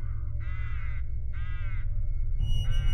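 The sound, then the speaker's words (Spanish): A crow perched on the outside frame of a window at night caws three times in a steady rhythm, each call harsh and drawn out, over a constant low rumbling background. “Tras el cristal vi uno de esos cuervos posado en el marco exterior.”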